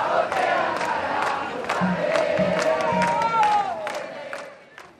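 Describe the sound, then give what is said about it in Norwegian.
A large crowd of demonstrators gathered in front of the presidential palace in Buenos Aires shouts and chants continuously, many voices overlapping loudly, with sharp rhythmic beats cutting through the din before the noise fades slightly at the end. “Derfor er vi samlet her foran presidentpalasset for å si høyt og tydelig fra om at landet er på vei mot stupet, sier demonstranten i Buenos Aires.”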